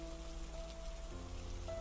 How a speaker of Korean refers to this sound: 그리고 기다렸다는 듯 비가 쏟아지기 시작하자 난 공터 한가운데 가만히 서서 사방을 두려번거렸다.